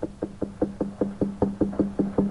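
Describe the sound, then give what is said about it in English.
A finger taps rapidly and evenly on a small device covered in buttons, about a dozen closely spaced, crisp knocks in steady rhythm over a faint low hum, with no voices. “They're hearing me tap on a thing with my finger over 35 states.”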